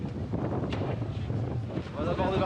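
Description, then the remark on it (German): Strong wind roars and buffets at sea from a boat heading to the Cordouan lighthouse at rising tide, a steady rumbling low-end blast with gusty surges and no break, loud throughout. “Hochkonzentriert gegen den Wind.”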